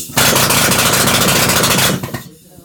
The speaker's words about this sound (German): Der Bergmann hatte so einen Abbauhammer dann allerdings etwa sechs Stunden lang in der Hand.